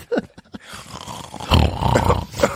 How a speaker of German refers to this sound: Auf einmal so noch so ein Schnarchen auf der anderen Seite.